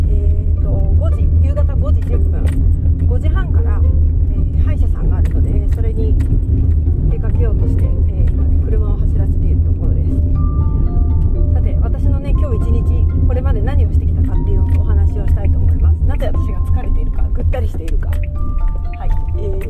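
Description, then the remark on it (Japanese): A steady, loud low rumble of a car interior fills the whole clip while a person talks over it from inside the car, with a few faint tonal beeps near the end. “いつも通りね今車の中でございまして今ね、”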